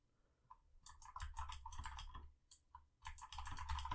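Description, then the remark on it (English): Rapid typing on a computer keyboard while looking up the Rotten Tomatoes score for Fantastic Four, a dense run of crisp key clicks in bursts with brief pauses, alone with no talking. “looking up the Rotten Tomatoes score for Fantastic Four.”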